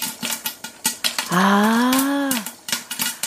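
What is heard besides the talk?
popcorn popping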